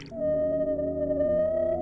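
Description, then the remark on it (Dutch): A sustained whale call, heard underwater, holds a steady, slightly wavering tone for nearly two seconds, rich with layered harmonics, loud, with no voices present. “Wow, een walvis. Zo mooi.”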